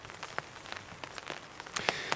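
Scattered raindrops tap on the taut surface of an umbrella held by someone walking outside, with irregular sharp ticks over a soft continuous patter and no voices.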